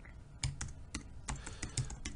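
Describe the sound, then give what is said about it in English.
Quick, uneven keystrokes clatter on a computer keyboard as a request is typed into an AI chat box, a burst of typing with irregular clicks and short pauses, moderately quiet with no voices. “I'm going to type into the chat box here, five ideas, five ideas for a podcast about self-publishing.”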